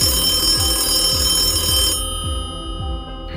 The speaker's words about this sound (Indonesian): Pada tanggal 28 November 1972, hari Selasa, bel berbunyi di sebuah ruang pameran Museum Tours.